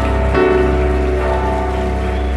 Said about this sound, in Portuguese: Vamos dar mais uma salva de palmas para essa banda maravilhosa.